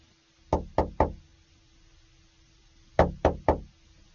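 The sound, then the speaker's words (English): Two sets of three quick, solid knocks on Mr. Barnes' wooden office door, separated by a short pause, clear with no voices. “knocks on Mr. Barnes' door and enters his office.”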